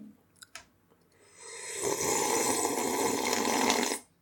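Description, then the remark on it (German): A couple of faint wet clicks, then a loud, long slurp of noodle soup, deliberately exaggerated to sound disgusting, a hissing, gurgling intake lasting over two seconds before stopping abruptly. No one speaks. “Also, ich habe das, das extra ekelhaft gemacht. Extra, damit man so richtig laut das Schlupfgeräusch.”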